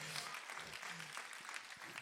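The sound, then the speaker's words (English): An audience claps steadily, producing a dense, even wash of crackling applause that holds at a constant level throughout, with a faint murmur of voices mixed underneath. “Oh, somebody clap because God still has a plan.”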